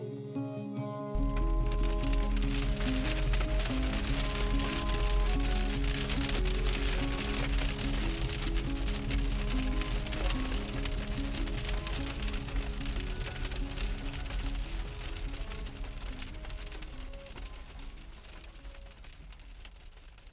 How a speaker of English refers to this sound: I got back in my car. A minute later, it started hailing ferociously.